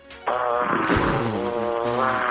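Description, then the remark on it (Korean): A voice impersonator on Park Myung-soo's radio show imitates a woman in her early thirties sneezing once, loud: a buzzy, voiced intake that breaks into a sharp burst and trails off in a long, drawn-out vocal tail. “자, 30대 어, 아, 초반의 여성분이 하는 재초기 소리 출발합니다.”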